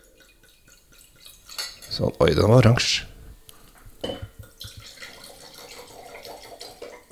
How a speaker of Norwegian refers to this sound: Eh, jeg kan helle litt oppi glasset ditt, ja, så skal jeg fortelle, for da får jeg se på etiketten der.